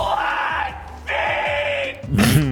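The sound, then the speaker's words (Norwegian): Harsh, strained screaming in three drawn-out bursts, the last rawest and loudest, with a raspy, bleating edge much like screamo vocals, with no talking. “Jeg hadde vært fornøyd med den screamoen der.”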